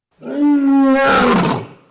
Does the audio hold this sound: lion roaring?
yes